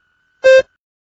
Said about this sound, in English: Begin speaking after the beep.